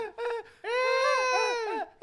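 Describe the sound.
A person mimics a baby's wail: a short whimpering burst, then one long, strained, wavering cry that rises and falls in pitch, loud with no other sounds.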